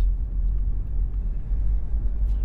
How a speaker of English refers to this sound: You're listening to me driving my personal vehicle, my truck, to the golf course